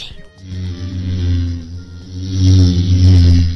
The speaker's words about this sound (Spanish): Muy bien, vamos a descubrirlo. Y sí, es el abejorro.